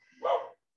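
A single sharp bark from a female dog named Ella, short and fairly clear, with nothing else around it.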